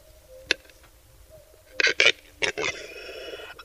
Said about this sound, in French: Ce son étrange est donc produit par cette grosse poule sauvage qu'est le grand tétra.